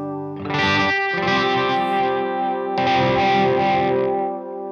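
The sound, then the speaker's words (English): An electric guitar played through an effects pedal with a slap delay plays sustained chords through a wobbling pitch-shifting effect, the notes warbling and bending with a trippy, chorus-like shimmer and a short delay trailing off at the end. “I put a slap, which is also again, because the pitch is shifting, you hear.”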